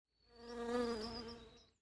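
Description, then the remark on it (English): A honeybee's steady, droning buzz swells in as it passes by a hive, holds for a moment, then fades away, all within about two seconds and with no voices. “I learned that bees are social insects and that a colony can have a single queen, hundreds of male drones, and 20,000 to 80,000 female worker bees.”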